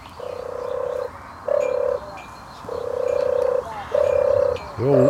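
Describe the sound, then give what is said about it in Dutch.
A dove's soft, sonorous, dreamy purring call, given as four long rolling bursts separated by short pauses, clear, with a quieter outdoor background and no talking. “En het wordt eh, omschreven als sonor en dromerig.”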